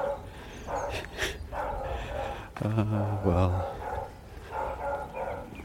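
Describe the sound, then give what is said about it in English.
A brown Labrador cross dog barks angrily in the morning, a short, harsh burst of two or three loud barks in the middle, while a person talks quietly before and after. “Morning dog. Brown, sort of Labrador cross type thing. Very cross.”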